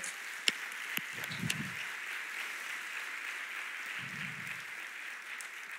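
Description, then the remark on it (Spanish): An audience applauds the Lord steadily, a dense wash of many hands clapping for about six seconds, with a few sharper individual claps standing out near the start and no one speaking. “Ok, si lo va a hacer, dale un aplauso bien fuerte al Señor.”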